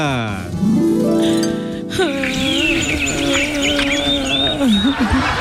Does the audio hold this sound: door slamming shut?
no